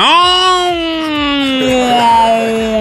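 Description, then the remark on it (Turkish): A man imitates the yowl a cat makes in March with one long, loud, strained wail that holds a steady pitch and slowly sinks lower over about three seconds. “Benim bildiğim köpek uluyor Yavrum Mart ayında kedi de uluyor ya. Ne şekil?”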